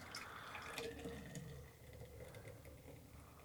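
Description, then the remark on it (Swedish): Beer pours steadily from a bottle into a glass, a continuous gurgling splash with faint bubbling that fades slightly toward the end, with no one talking. “Ska du hälla hela flaskan i ett glas?”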